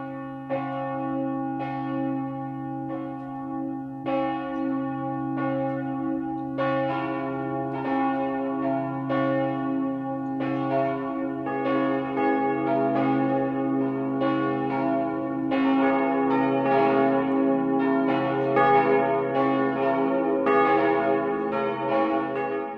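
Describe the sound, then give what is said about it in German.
Church bells in Dirlewang, Swabia, Germany, ring the 12 o'clock midday chime continuously in a full, overlapping peal, strikes layering into a dense, resonant wash that holds steady and grows slightly fuller; no voices are heard. “Das Mittagsläuten kommt heute aus Dirlewang in Schwaben.”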